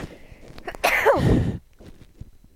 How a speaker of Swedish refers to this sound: Oh, nej, jag ska nysa. Oh, nej.